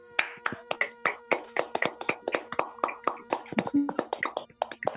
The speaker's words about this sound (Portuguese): Vamos dar uma salva de palmas para essas três pessoas sensacionais.